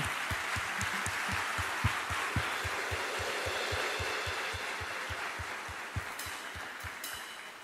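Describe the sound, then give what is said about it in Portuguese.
An audience applauds, a dense, steady wash of clapping with a regular low thumping pulse running underneath, sustained evenly for several seconds with no voices. “Então dá uma salva de palmas aí, alguém começou.”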